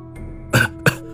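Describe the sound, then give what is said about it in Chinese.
A man gives two short, harsh coughs, the first slightly longer and the second quick and clipped, each a broad burst of noise against a quiet, faintly humming background. “三爷咳嗽了两声，急促的吩咐我”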